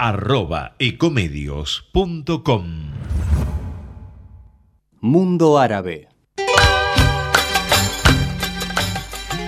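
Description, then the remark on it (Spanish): A voice speaks briefly, a swooshing effect sweeps past, more speech follows, then a loud, busy radio program theme jingle bursts in and plays for the last few seconds. “Escucho, la, la, cortina y se me pone la piel de gallina”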